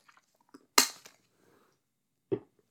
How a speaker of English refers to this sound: Sorry, I just took a sip.